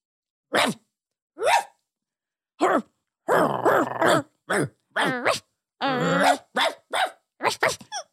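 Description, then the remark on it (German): A person imitates a dog barking, letting out about a dozen short yips and woofs in an uneven rhythm, some clustered in quick runs, with brief silences between. “Kannst du bellen?”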